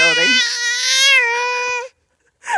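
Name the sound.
baby screaming and crying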